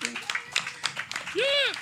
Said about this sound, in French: Quel technicien, on peut l'applaudir. C'est notre technicien.